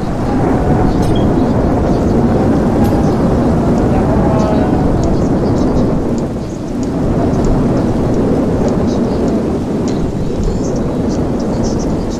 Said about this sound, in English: No, that's the hurricane. See how the rain is blowing in different directions?